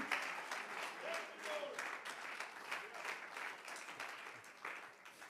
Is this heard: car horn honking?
no